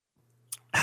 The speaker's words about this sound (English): Taking a sip of tea here.